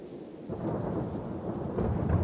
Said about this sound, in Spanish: Esa noche había una tormenta muy pesada, pero sin importarle, mi madre nos dijo que nos iríamos.